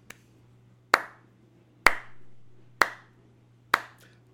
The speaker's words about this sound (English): clap for the 49ers. Crushing it again.